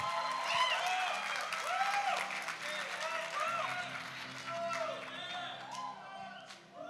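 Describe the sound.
An audience claps steadily for about seven seconds, a dense, even patter of many hands, with scattered voices cheering and calling out over it before it thins slightly at the end.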